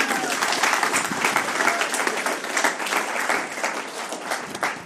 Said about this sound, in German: Komm auf die Bühne, dann haben wir einen großen Applaus für ihn.